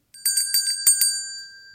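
ding-dong chime

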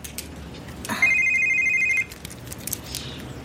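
mobile phone ringing

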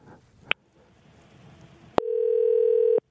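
telephone ringing tone

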